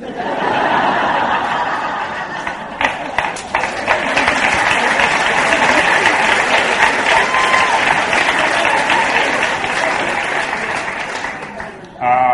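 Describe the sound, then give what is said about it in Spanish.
Sustained audience applause, a dense, steady crackle of many hands clapping for about twelve seconds, with scattered laughter and voices mixed in before it tapers briefly near the end. “Aplaudan, pero se lo queden grabado.”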